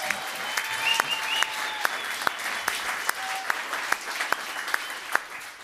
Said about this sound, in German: Einmal bitte den Applaus für Terry Halliburton. Einmal bitte den Applaus für Mahmoud Abdul Rauf. Und einmal bitte den Applaus für Bulls-Spieler DeMar DeRozan bei den Raptors.